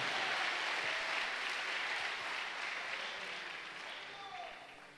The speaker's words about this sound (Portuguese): Give the Lord praise. Dê uma salva de palmas Give para the Jesus.